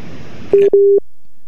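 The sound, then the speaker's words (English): Noisy phone-line audio abruptly drops out to silence, followed by two steady electronic beeps, the second longer, like a call cutting off. “Can you say that again? Because you was cutting out, oh, darling.”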